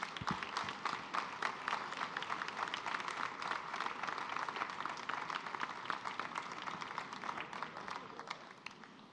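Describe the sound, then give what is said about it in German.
Audience applause for three prize winners at an award ceremony fills the whole stretch, a dense, steady patter of many hands clapping at an even loudness without pause, with no voices standing out above it. “Und jetzt ein herzlicher Applaus an alle drei Preisträger.”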